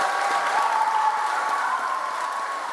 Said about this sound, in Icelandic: Eins og hlustendur heyra hér brutust út mikil fagnaðalæti þegar tilkynnt var að Gitanjali Sri hafi hlotið þessi virtu velun.